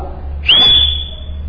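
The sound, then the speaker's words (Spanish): A single loud, sustained whistle from a person, starting with a quick upward swoop and then holding a steady high pitch for about a second before fading, as if calling someone over. “Y le chiflaba”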